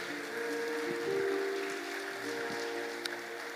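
A steady burst of crowd applause, a dense even patter of many hands clapping with no voices on top, and a low sustained tone humming underneath.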